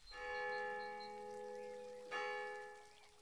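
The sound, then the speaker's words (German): A church tower bell strikes twice to mark the full hour, about two seconds apart, each toll ringing out with a long, shimmering decay. It sounds fairly quiet, with no voices. “Das ist der Kirchturm. Zu jeder vollen Stunde schlägt er. Es müsste gleich wieder soweit sein.”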